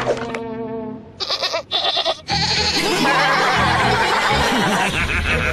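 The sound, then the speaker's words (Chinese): A goat bleats in wavering, nasal cries, starting with a bright, tonal bleat and followed by choppy bursts and a loud, raspy stretch of rough noise, with no one speaking. “只是没想到有羊。”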